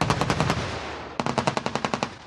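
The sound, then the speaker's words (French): Rapid bursts of automatic gunfire crack out in two sustained volleys, each shot sharp and evenly spaced, loud and echoing over a low rumble with no voices, during a 2023 joint massive live-fire military exercise in a valley only 25 km from the border. “Durant une heure et demie, une pluie d'explosions s'est abattue sur la vallée située à seulement 25 km de la frontière.”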